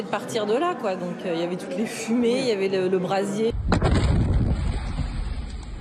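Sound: gas station explosion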